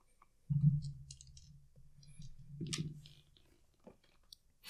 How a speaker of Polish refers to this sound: Usłyszeliście dźwięk tego starego komputera chłodzonego powietrzem, który zaczął mocniej pracować, kiedy wszystkie wentylatory się, e, się odpaliły.